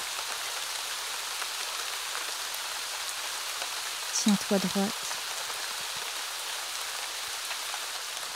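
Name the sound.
rain falling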